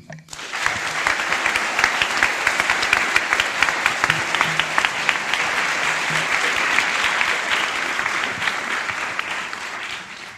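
Sustained audience applause, a dense crackle of many hands clapping steadily for about ten seconds at a fairly loud, even level, with faint crowd murmur underneath.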